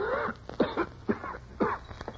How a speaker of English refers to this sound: How long have you had that cough, Fortunato? It is nothing. Come, Fortunato, we'll go back. Your health is too precious. This dampness not good for your cough.